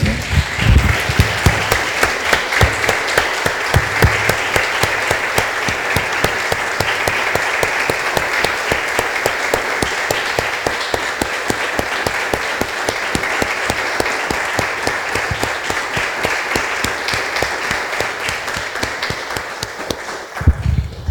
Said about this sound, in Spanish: Damos un aplauso, hermanos.